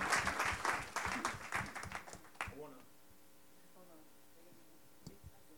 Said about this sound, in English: so amen can we clap for that segment because all three brothers shed light on something yes sir